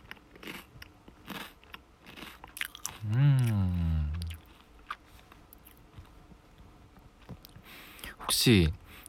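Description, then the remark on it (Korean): Crisp crunching and chewing of snack food, done as ASMR on a bed in lodging accommodation, with irregular crackly bites throughout and a brief voiced hum or murmur in the middle, all at a quiet level. “그리고 제 옆에는 과자가 있죠. 과자 ASMR 하겠습니다.”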